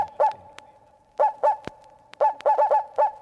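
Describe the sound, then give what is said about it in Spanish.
A voice mimics a dog barking mournfully: short, whiny yelps come in bursts, first a pair, then a few more, then a quick run of several, over a steady droning tone. “ladra tristemente.”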